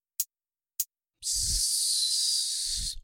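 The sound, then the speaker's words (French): A steak sizzles on a barbecue grill: two quick, sharp hisses, then a loud, steady sizzle lasting about two seconds, with soft low thumps as it starts and ends. “le bruit du steak quand on le cuit, ce soit le même que le bruit d'un vrai steak de bœuf qu'on mettrait sur le barbecue.”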